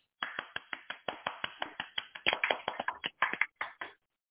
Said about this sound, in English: I'm there clapping too.